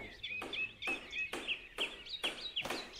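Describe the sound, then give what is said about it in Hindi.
A hammer taps steadily on something hard as a craftsman works on an object he is making in a house in Kucha Chelan, about eight sharp strikes in an uneven rhythm, each leaving a brief high metallic ring. No one speaks. “हथौड़े की ठक ठक की आवाज़ से अजहर अली के दो बेटे इमाद अली और आमिर अली भी जाग गए”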